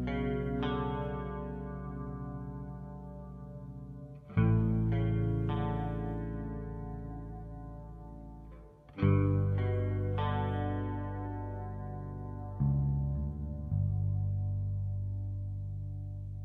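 Slow, dark indie rock played on heavily effected, distorted guitar with long sustained chords that swell and fade, new strums arriving every few seconds in a repetitive pattern, with no vocals.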